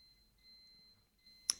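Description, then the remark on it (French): A faint, thin electronic beep from a dishwasher signalling the end of its cycle, ending in a brief sharp click. No one speaks. “c'est la fin du lave-vaisselle.”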